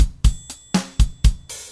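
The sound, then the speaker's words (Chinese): A steady drum-kit groove of punchy kick and snare hits, roughly four per second, with a bright, ringing triangle shimmering on top and sustaining between the beats. No voices. “这就是那个三角铃的声音哦。它跟爵士鼓叠起来的时候，就是可以这样子。”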